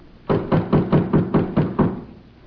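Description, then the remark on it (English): A quick series of about seven firm knocks on a back door, evenly spaced and fairly loud, lasting under two seconds before stopping, with no voices. “You answer the door.”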